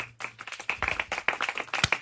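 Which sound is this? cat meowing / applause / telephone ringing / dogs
applause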